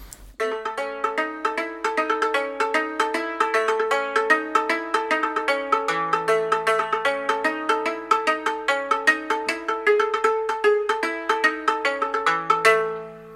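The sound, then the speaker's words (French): Rapid, bright metallic notes ring out from a hammered dulcimer, a trapezoid-shaped box with taut strings struck with small sticks, in a steady rhythmic pattern, each struck tone shimmering and overlapping with the next, with a low sustained bass tone underneath. “C'est en fait une boîte en forme de trapèze sur laquelle sont tendues des cordes et on frappe ces cordes avec des petites baguettes”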